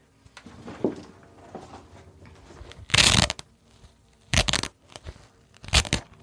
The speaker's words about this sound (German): Ein Klettverschluss habe ich auch seit Jahren nicht mehr gehört.